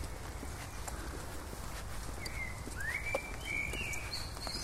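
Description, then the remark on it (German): Birds chirp and whistle in short bursts over a steady outdoor rumble, the calls starting after a couple of seconds and repeating toward the end. No one speaks. “Ja, eigentlich schon ein super Schlusswort und passend zwitschern die Vögel”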